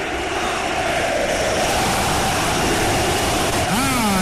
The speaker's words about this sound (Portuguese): Diego Alves é o que grita a galera aqui do Maracanã. É um dos maiores pegadores de pênalti e pode resolver a classificação do Flamengo.